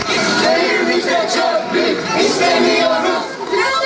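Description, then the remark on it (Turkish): A large crowd roars and cheers loudly and steadily, a dense wash of many voices shouting together with applause mixed in, sounding open and outdoors, at an open-air screening of Fatih Akın's documentary in Çamburnu Square. “Alkışların ardından Çamburnu Meydanı horon sesleriyle yankılandı.”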